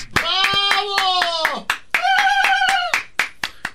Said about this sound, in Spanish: Gracias, merezco un aplauso.